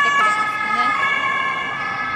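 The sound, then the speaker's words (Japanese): A loud German police car siren blares with steady, shrill tones that hold for the whole stretch and fade only slightly as the patrol car passes, over a low rumble of street traffic. “今通り過ぎたのがポリチャイ警察のパトカーでした”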